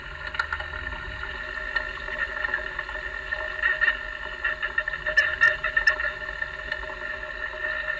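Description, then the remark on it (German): Underwater crackling of carp feeding, recorded with a homemade hydrophone: a steady bed of fine, dry clicks and ticks over a low hum, with a few sharper snaps standing out near the end. No one speaks. “Das sind Fressgeräusche von Karpfen, das haben wir gerade eben gehört, dieses Knistern.”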